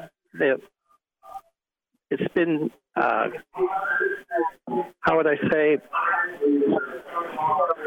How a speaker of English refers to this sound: I'm getting an echo back.